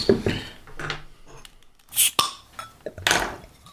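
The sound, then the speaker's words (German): A beer bottle being opened: glassy clinks and rustling, then a sharp pop with a brief fizzing hiss, followed by more clinking of glass. No one speaks. “So lautstark die Flasche öffnen, der Wahnsinn.”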